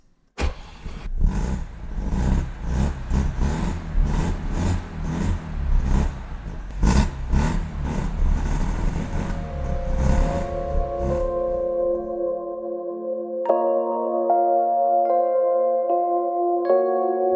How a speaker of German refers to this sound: Aber wie sich der Wankelmotor im Rohr 80 anhört, das erfahren wir jetzt.